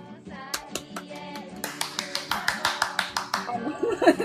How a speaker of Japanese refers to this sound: すごいすごい拍手してる。